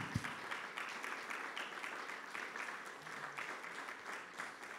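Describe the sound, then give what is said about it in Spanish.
An audience claps for the Lord steadily and loudly for the whole stretch, a dense, crackling wash of many hands with no voices standing out above it. “Entonces, no, si se lo va a dar, déselo fuerte al Señor.”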